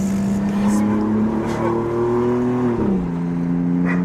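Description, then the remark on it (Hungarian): A car engine drones steadily and climbs slowly in pitch as it accelerates, then drops suddenly with a gear change before pulling again. The engine sounds loud and continuous throughout. “Tényleg, mint a három kiló lenne az autó, nem?”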